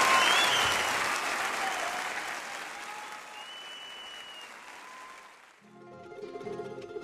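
Loud applause from an audience, a dense wash of clapping that gradually thins and fades over several seconds, followed by a brief stretch of soft voices.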